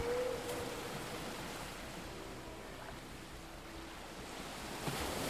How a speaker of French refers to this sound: concentré sur le bruit des vagues et la brise rafraîchissante qui effleure votre visage.